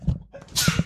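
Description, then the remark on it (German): A single sneeze, fairly loud: a short voiced intake followed by a sharp, hissy burst of breath that ends abruptly. “Gesundheit.”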